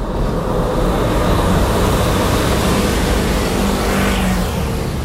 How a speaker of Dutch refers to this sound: Het verschil tussen een besneeuwde straat en een straat zonder sneeuw is immens. Hier hoor je het geluid van verkeer dat door een straat zonder sneeuw rijdt.